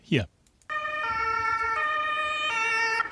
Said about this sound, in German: Das ist der Fahrer eines Rettungswagens, der da zu hören ist, der an so einer kleinen Demo von Gegnern der Corona-Maßnahmen vorbeifährt.